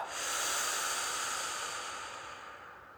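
A single long, forceful breath pushed out through the mouth after a strong inhale through the nose, part of a breathing exercise: a broad airy hiss that stays steady for about three seconds and slowly fades. No talking.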